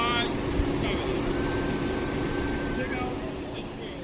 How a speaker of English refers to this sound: The funeral starts, and I stand back, near the hearse, which still has its engine running.